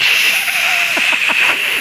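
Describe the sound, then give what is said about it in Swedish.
A person imitates oxygen mask breathing with a loud, steady hiss, a thin whistling tone running through it, and a quick series of rhythmic throaty pulses toward the end. “Syrgasmask.”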